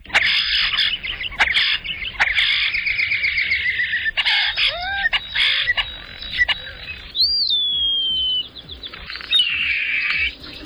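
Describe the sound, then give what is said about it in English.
A European starling sings continuously, mixing buzzy rattles and clicks with gurgles and sliding, drawn-out high whistles, with no voices over it. “The songs of the European starling include rattling and hissing and gurgling sounds, along with high pitched, drawn out whistles.”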